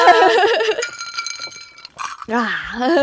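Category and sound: household object, glasses clinking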